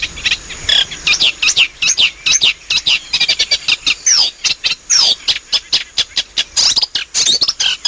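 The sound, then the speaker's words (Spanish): A single marsh bird sings from the top of a curved reed swaying in the wind in the marshes in spring, a rapid, restless song of scratchy chirps, clicks and sliding whistles, loud, pouring out almost without pause for several seconds with no voices. “Está tan contento, está tan contento porque ha llegado el calorcito, la primavera que se nos avanza y él está ahí en lo alto de un junco curvado, mecido por el viento”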